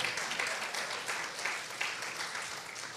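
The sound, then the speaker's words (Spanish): A crowd claps steadily as an offering of applause to the King, dense overlapping handclaps forming a continuous wash of applause that stays fairly even in loudness throughout, with no voices standing out. “Viene una ofrenda de palmas al rey.”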